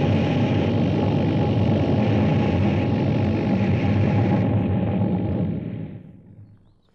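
A flying saucer descends over the mall in Washington, D.C. and lands on the grass: a loud, steady droning roar with a throbbing hum, then it winds down and fades away to silence as it settles, with no voices.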